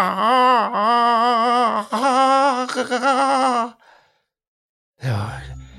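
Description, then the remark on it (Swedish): A human voice imitates a young swan's strange cry: a long, wavering, strained wail held for several seconds in loud bursts, then a brief pause and a short rough breath. “Det var ett skrik som lät så annorlunda att han själv blev skrämd.”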